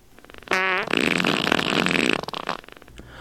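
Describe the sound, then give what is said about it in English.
Two loud farts play on their own: a short tonal, squeaky burst followed by a longer, raspier blast that trails off with a few sputters. “You've farted twice more.”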